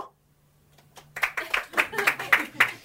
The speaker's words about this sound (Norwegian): Jeg har lyst til å høre med publikum hva dere tror. De som tror det er sant, dere kan klappe nå.